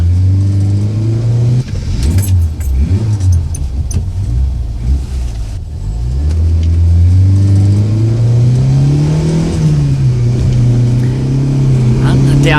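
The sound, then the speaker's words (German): A car engine roars, revving hard, dropping briefly midway, then climbing steadily in pitch as the car accelerates during a chase on a road winding down to the coast, loud and continuous the whole time. “stieg zu Peter ins Auto und los ging die Verfolgungsjagd”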